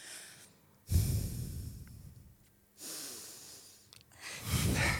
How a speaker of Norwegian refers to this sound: Men det jeg også har hørt at man kan gjøre, det er å puste sånn her. Lukke øynene. Puste gjennom nesa.